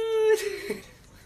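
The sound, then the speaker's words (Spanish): A single sneeze: a brief voiced, drawn-in buildup followed by a sharp, breathy burst that quickly trails off, with no talking around it. “¡Salud!”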